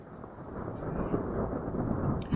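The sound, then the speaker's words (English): A deep, rolling rumble of thunder swells and holds steady for a couple of seconds, loud, with no voices over it. “With another peal of thunder, the order was given for the attack to begin.”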